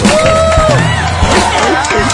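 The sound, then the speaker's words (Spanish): A loud live-show audience cheers and claps steadily for a singer after a song, with whoops and shouting voices rising over a dense wash of applause throughout. “Un aplauso fuerte.”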